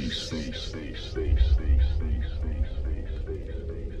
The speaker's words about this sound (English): It'll show you you're alive. and listen to this fat bass that will send the blood coursing through your veins.